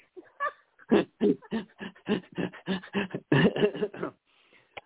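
A dog whimpers in a quick run of short, whiny cries, about a dozen close together over a few seconds, clear, with no talking over it.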